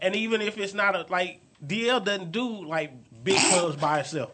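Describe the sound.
A single sharp sneeze bursts out near the end, fairly loud, cutting into steady conversational talk from a speaker.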